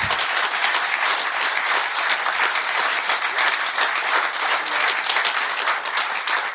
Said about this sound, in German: Ja, bravo, großer Applaus.